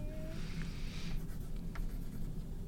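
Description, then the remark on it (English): A pen scratches across a piece of paper in short, quick strokes as something is written down, with soft scribbling bursts over a low steady background hum and no talking. “You have to like write it down on a piece of paper.”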